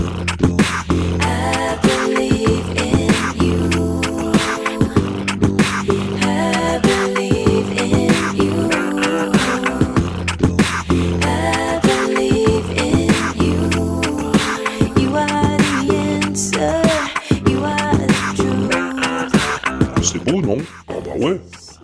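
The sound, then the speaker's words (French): Layered, looped beatbox music, with rhythmic mouth-made percussion and vocal tones stacked into a steady, dense groove that repeats throughout, ending abruptly. “elle fait du beatbox, elle enregistre, elle filtre, elle met tout ça en boucle et ça donne ça.”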